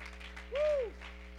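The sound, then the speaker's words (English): An audience claps its hands unto the Lord in a steady, dense patter for the whole moment, with a brief tone that swells and falls midway and a low hum running underneath. “Come on, why don't you clap your hands unto the Lord?”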